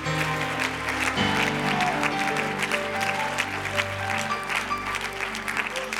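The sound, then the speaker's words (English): An audience claps steadily for about six seconds, a dense, even patter of many hands, while sustained keyboard chords play underneath and shift to a new chord early on. “If you're excited about what God's going to do before you're seated, would you just clap your hands and would you rejoice here today?”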